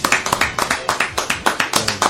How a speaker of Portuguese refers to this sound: É isso aí, estamos de volta com o Jornal Bossal. Palmas para nós!